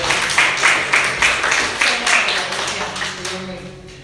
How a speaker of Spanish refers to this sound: Alguien tiene que dar un aplauso al Señor por eso.